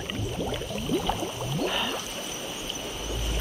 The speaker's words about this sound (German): Hallo, was ist das für ein Blubber?